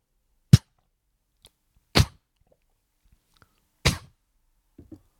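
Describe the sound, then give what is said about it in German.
A person imitates a dog sneezing or reacting to something it has just tasted and dislikes: three sharp, loud, breathy snorts spaced out over a few seconds, with faint softer puffs between them and a couple of small clicks at the end. “Hund, wo ein bisschen, wo so ein bisschen, er muss er niesen oder hat er gerade etwas geschmeckt, was er nicht so geil findet, geht so.”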